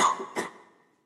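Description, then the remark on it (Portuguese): A single sneeze in two quick bursts, a sharp intake-like onset followed by a breathy burst, then fading into quiet. No one speaks. “Que, saúde.”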